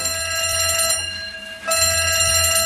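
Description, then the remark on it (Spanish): A fire alarm bell rings loudly and continuously at Notre Dame in Paris on 15 April 2019, around 6:20 in the evening, its harsh metallic clanging briefly cutting out before resuming at full strength, with no voices present. “Los guardias de seguridad escucharon la alarma del incendio en Notre Dame y comenzaron a evacuar al público que había, pero no vieron ningún indicio de incendio.”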